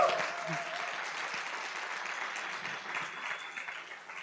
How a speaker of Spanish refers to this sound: Le damos un aplauso a Dios por esto.